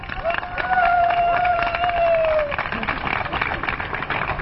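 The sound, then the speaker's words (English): A crowd applauds the Royal team in a contest decided by a jury, with steady, dense, loud clapping throughout, and a long, sustained whistle rises above it for the first couple of seconds before fading out. “And they're applauding the loudest.”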